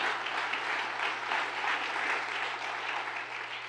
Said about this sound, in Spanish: Denle un aplauso fuerte a Dios.